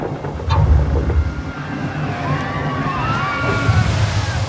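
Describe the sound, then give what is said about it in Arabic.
Rough sea at dawn churning and sloshing against a migrant boat tossed among high waves: a continuous loud, low rumbling wash of water with surging swells, joined midway by faint high, wavering whines over the turbulence. “هذا المشهد لوقت طلع الفجر وشفنا بعضنا وازداد البحر هيجانا القارب يتخبط وسط الامواج العاليه”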